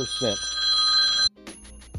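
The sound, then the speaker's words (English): A cell phone rings with a bright, sustained electronic tone, cut off after about a second, followed by a few short chirps, with brief bits of a voice underneath. “One of the pitfalls for doing a podcast on the cell phone is sometimes the cell phone interrupts the podcast.”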